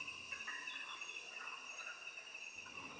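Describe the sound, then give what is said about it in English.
A steady, dense whirring chorus of insects in a forest, continuous high buzzing trills layered together, with no voices and no break in the drone. “Then, as suddenly as it appeared, the jaguar moved silently off into the forest, leaving behind rhythmic waves of frog and whirring insect choruses, and what remained of my pounding heart.”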